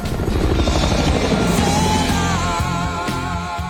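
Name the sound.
helicopter flying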